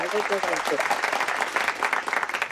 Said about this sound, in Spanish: Un aplauso, que sea un éxito.